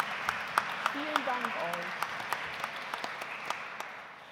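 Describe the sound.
An audience applauds steadily in a reverberant church after a church service with music by a vocal ensemble, with sharp claps standing out from a dense wash of clapping; a voice briefly murmurs underneath.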